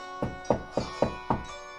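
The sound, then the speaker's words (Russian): Jack knocks five sharp times on the wooden door of a huge house, in a steady, slightly uneven rhythm, clear with no voices. “Джек постучался в дверь.”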